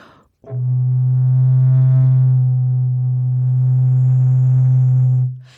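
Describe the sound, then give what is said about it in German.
A single low recorder note held steadily for about five seconds, fairly loud, its tone colour shifting subtly partway through as the player changes mouth shape to vowel colourings such as O, A or U, while the pitch stays constant. No one speaks. “Das hat man jetzt am Blockflöteninstrument etwas weniger”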